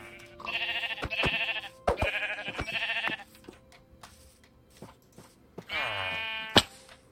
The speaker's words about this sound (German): Schafe.